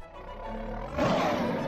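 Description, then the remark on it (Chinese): A low, rumbling lion roar that starts as a harmonic growl, then swells into a loud, rough, breathy blast about halfway through and holds there. No talking over it. “第二步，发出狮吼。”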